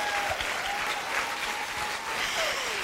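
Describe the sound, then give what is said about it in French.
An audience claps steadily, a dense wash of many hands applauding at an even, sustained level for the full few seconds, with no voices rising above it. “Et je tiens à dire, double applaudissement,”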